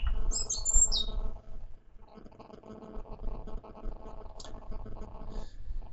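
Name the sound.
birds chirping and singing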